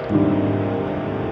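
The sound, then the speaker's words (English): A steady wash of ocean surf blends with soft, sustained background music of warm held tones, a continuous, even bed of sound with no talking. “While the music and waves surround you, see if you can create an image in your mind.”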